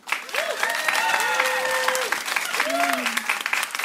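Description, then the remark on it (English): An audience claps steadily for about four seconds, a dense crackle of many hands, with whoops and rising-falling cheers from several voices mixed in, voting on an applause meter for Jigglypuff to make it in. “If you think it should make it in, applause.”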